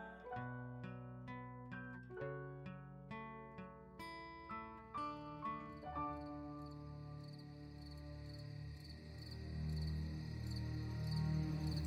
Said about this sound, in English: So our camera opens up on a clear, starry summer evening. You can hear the faint sound of crickets humming off in the distance.